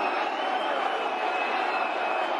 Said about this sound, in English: He's gone up again. Hence the booing.